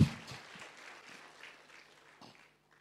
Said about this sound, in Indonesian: Tepuk tangan yang meriah untuk Tuhan Yesus.